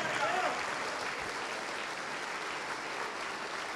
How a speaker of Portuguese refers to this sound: vamos aplaudir mais ao nome de Jesus